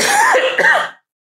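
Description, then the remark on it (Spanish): A loud, raspy cough in two quick bursts, rough and throaty like clearing the throat, lasting about a second and then stopping into silence. “Y con esa tos le dejo, le paso la palabra”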